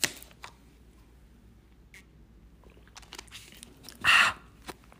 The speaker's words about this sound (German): Leute, es tut mir leid, ich muss jetzt einen Schluck trinken.